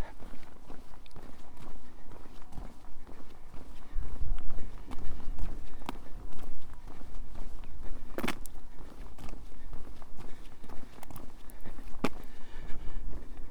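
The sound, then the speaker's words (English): Steady footsteps crunch along an outdoor path at a walking pace over a low rumbling wind, with a couple of sharper knocks partway through; a person walking through Coney's Castle, an Iron Age hill fort in the Dorset countryside. “walking through Coney's Castle. Another Iron Age hill fort.”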